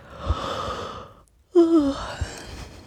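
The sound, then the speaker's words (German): A person yawns while stretching with arms behind the head: a long, airy inhale, a brief pause, then a voiced, downward-sliding groan that trails off into a breathy exhale. No one speaks. “Jetzt langsam deinen Atem wieder spüren, fühlen, wie der Brustkorb sich äh, senkt und hebt, die Finger bewegen, die Zehen, langsam die Gelenke, Handgelenke, Fußgelenke, dann die Arme hinter den Kopf bringen, strecken, mal gähnen.”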